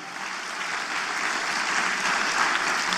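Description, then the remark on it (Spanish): An audience applauds to the Lord during an evening sermon, a dense, steady wash of clapping that swells slightly toward the end, with no voices rising above it. “Y luego encontramos, dele fuerte ese aplauso al Señor para lograr.”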